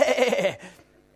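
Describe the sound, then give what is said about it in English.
A person does a short, nasal sheep-bleat imitation, a wavering "baa" lasting about half a second, fairly loud, then trailing off into quiet. “And you're going to go, eh, eh, eh, So there's a good sheep in this place here.”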